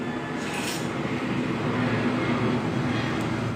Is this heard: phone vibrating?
no